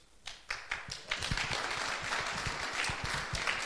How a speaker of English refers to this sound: Don't clap too soon.